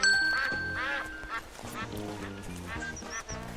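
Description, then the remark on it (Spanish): A flock of ducks quacking loudly and continuously, many overlapping calls with a busy, chattering rhythm throughout. “¿No es el pajarraco el que está ahí cuidando esa cantidad de patos?”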